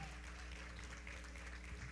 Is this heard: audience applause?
yes